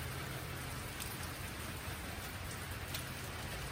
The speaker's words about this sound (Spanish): Ahí vas afuera, te vas a mojar, Biggie. Nah, ya viste que está lloviendo. ya te cayó el agua y no quisiste. Está muy mojado.